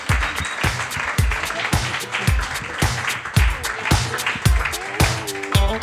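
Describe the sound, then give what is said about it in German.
A short burst of audience applause, dense and steady for several seconds, with regular low thumps pulsing underneath in an even rhythm; no one speaks. “Genau, mal kurz kurzer Applaus.”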